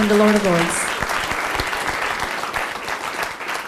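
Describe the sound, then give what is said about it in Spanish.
An audience claps loudly and steadily for a few seconds, giving applause to the King of Kings and Lord of Lords during a sermon, a dense wash of applause filling the room, with a brief sustained tone sounding at the very start. “Podemos darle un fuerte aplauso a ese Rey de Reyes y Señor de Señores.”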